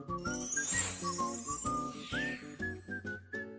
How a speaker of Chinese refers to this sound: 铃铃铃，动物学校的下课铃声响了